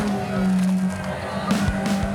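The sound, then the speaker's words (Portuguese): Car engines drone and rev, pitch shifting as they strain and accelerate through mud during a competition in Hungary, with bursts of splashing, churning noise and faint crowd sounds. “Para vencer essa competição na Hungria, carros e seres humanos precisaram encarar a lama.”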